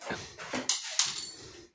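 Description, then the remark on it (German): Two sharp, bright clinks ring out, like shards of broken glass knocking together, amid softer rustling and shuffling noises. “oh Gott, erstmal klang das noch Scherben.”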